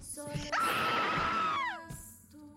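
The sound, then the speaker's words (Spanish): A single stifled scream bursts out suddenly, holds a strained, steady pitch for about a second, then slides downward and cuts off, loud against a quiet background. “las cuales seguían ahí como si estuvieran adheridas a ese espacio la voz que cantaba la canción, los golpes en la puerta del baño, las pisadas, el grito ahogado.”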